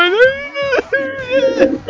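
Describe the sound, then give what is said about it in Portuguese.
A voice mimics a 12-year-old crying and sucking, producing a loud, wavering whimper in two drawn-out bursts with a brief catch between them. “Imagina ele com 12 anos lá chupando e chorando,”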